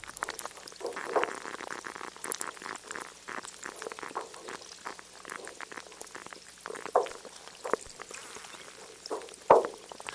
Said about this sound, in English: Listen to the Canada Glacier in the McMurdo Dry Valley area of Antarctica. It's a small polar glacier that towers over a lake, and as it melts, the water trickles down and the ice creaks.